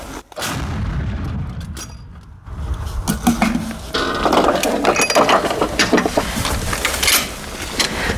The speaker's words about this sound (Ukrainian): Дай далі 10. Далі 10 вогонь по готовності. Постріл.